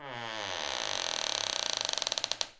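A single drawn-out creak of old wood under weight, fairly loud, that starts as a smooth groan and breaks into a quickening series of rapid clicks before stopping, with no voices.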